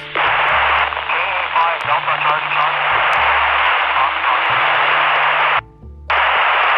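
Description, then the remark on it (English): A faint, garbled voice comes through a steady wash of loud radio static, the hiss cutting out briefly near the end before returning. “I heard someone calling, but the uh, signal's quite noisy.”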